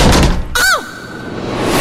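A room door slams shut once with a loud, sharp bang as it strikes a woman's face, followed by a brief metallic ringing that fades within a fraction of a second over a steady background wash.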